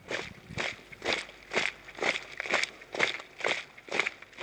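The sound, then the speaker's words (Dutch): Steady footsteps walking outdoors, climbing a few hundred meters up to a wall, about nine or ten crunchy steps at an even pace, moderately loud, with no voices. “Ja, we lopen er even naartoe, naar de plek van een beweging die nooit de onze was.”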